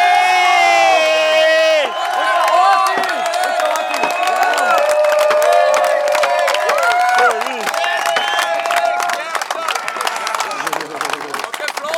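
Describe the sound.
A large crowd applauds and cheers loudly and steadily, dense clapping running the whole way through with whoops and shouted voices rising above it, close and energetic.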